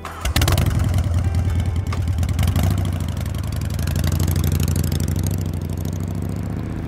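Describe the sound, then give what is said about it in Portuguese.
A motorcycle engine cranks and catches with a loud burst, then settles into a steady, throbbing idle as the rider prepares to ride to work, with no voices present. “Então voltei para casa, me arrumei e peguei a moto para ir pro trabalho.”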